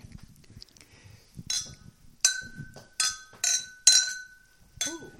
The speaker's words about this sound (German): haben übrigens Sekt, darum finde ich, wollen wir gleich anstoßen